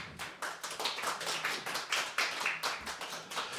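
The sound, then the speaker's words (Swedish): An audience breaks into applause for three men taking the stage, a dense, steady patter of many hands clapping at once, sustained with no voices over it. “Kan vi få en applåd?”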